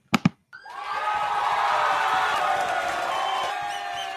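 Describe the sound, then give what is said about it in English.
Two sharp claps snap out, then a big crowd erupts in loud, sustained cheering and whooping that holds steady for about three seconds before tapering off. “All right, we got some cheers and everything.”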